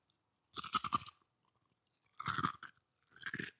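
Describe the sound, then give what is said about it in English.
Three loud bursts of crunching as something crisp is bitten and chewed, each lasting about half a second with quiet gaps between them. “I really hope the heft of that crunch carried through and was preserved in the audio.”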